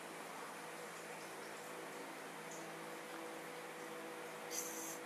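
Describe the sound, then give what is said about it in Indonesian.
A soft, steady trickle of water from a large river runs continuously, faint, with a brief brighter splash of hiss near the end and no voices. “Sayup-sayup dia mendengar suara gemericik air.”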